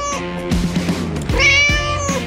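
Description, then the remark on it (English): A cat meows loudly, two drawn-out, wavering cries in a row with a brief break between them, the second rising higher and more strained, with no talking over it. “it's National Cat Day today.”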